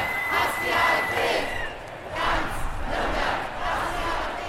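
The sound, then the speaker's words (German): A crowd of 15,000 to 25,000 people chants at a demonstration against right-wing extremism on Willy-Brandt-Platz and surrounding streets in Nuremberg, Germany, in loud, rhythmic bursts, voices swelling and falling in repeated waves, with a steady background roar outdoors. “So klang es letzte Woche Samstag am Nürnberger willy brandt und auf den Straßen drumherum.”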